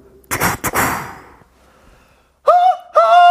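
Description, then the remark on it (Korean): A voice imitates a train horn with two loud, sustained, nasal blasts, the second held longer, after an earlier breathy, noisy rush of sound and a short pause. “그 기차 경적 소리를 한번 어. 내보도록 하겠습니다.”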